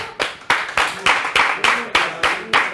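An audience claps along in a steady, quick rhythm, about ten sharp bright claps in under three seconds, each hit evenly spaced and fairly loud, with no talking over it.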